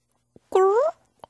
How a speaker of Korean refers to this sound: 이렇게 꼬르륵 소리가 좀 들린 것 같긴 한데요